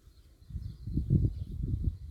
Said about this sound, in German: Ich sitze jetzt hier, wie gesagt, auf Mallorca im Garten. Ich höre, wie die Blätter rauschen und ähm, ich genieße die Sonne auf der Haut.